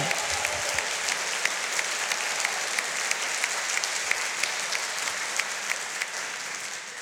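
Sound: audience applauding loudly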